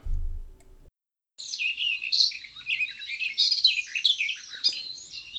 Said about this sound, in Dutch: Misschien wel door de zang van de merel. Elke zomeravond in de, in de berk voor ons huis.